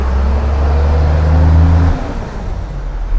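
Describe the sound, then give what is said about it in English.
A heavy garbage truck rumbles past outside, its deep engine drone loud, holding steady before dropping in pitch and easing off partway through, with no one talking. “Sorry, it's trash.”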